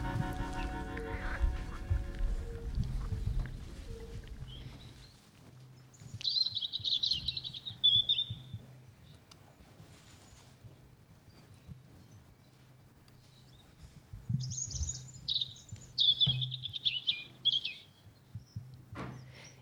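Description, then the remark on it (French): A European robin sings two bright, warbling phrases a few seconds apart over a steady low rumble, with a brief burst of clattering noise at the start. “et on commence cette émission avec le joli chant du rouge-gorge familier.”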